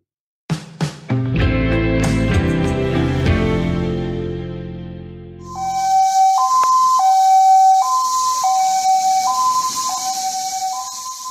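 An ambulance siren in Thailand wails in a steady two-tone hi-lo pattern, loud with a hissy wash behind it, following a few seconds of ringing musical chimes that fade out. The ambulance is on its way to help refugees who have crossed the border from Myanmar.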